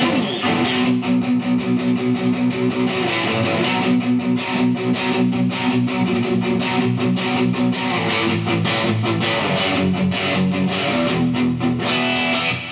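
Palm-muted power chords on a distorted electric guitar, chugged steadily in a fast, even rhythm at a loud, constant level, with short percussive attacks and a thick low-mid drone throughout.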